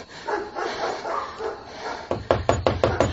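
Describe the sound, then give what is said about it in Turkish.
Esoğlu's dogs bark and growl in a rough, overlapping stretch at a farm, then about six sharp, evenly spaced knocks on the village guard's door ring out in quick succession. “Hazine itleri defolun diyorum.”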